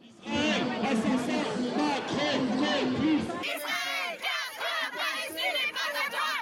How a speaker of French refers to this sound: La foule réunie a repris les traditionnels slogans pro-palestiniens